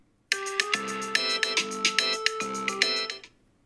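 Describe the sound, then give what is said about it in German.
An electronic timer alarm plays a bright, repeating melodic chime of rapid tonal notes for about three seconds, fairly loud and clear, with no voices over it, signalling that time is up in the final round of a game. “Übrigens, ich kann es euch nochmal dazu sagen, wenn, ihr, äh, wenn, wenn, der, wenn die Zeit vorbei ist, kommt dieser Ton.”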